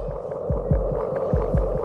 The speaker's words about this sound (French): écoutez ce petit battement de cœur, c'est absolument délicieux.